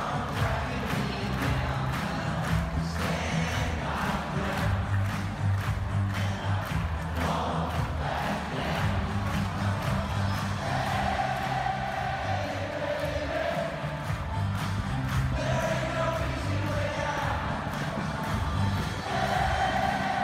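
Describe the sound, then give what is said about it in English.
A massive stadium crowd of about 90,000 football fans sings along to a song's chorus, a dense roaring wall of voices with chanted melody rising and falling, sustained loud throughout with no individual speech. “by the time the song reached its chorus, 90,000 football fans strong stood and shouted at the top of its lungs, Hey, baby, there ain't ….”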